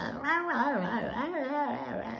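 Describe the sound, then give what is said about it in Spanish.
A human voice imitates a dog talking, mimicking its whimper with wavering, rising and falling whines in a continuous run of about two seconds, fairly loud, with no ordinary speech. “Porque el perro hablaba, güey, o sea, neta hablaba.”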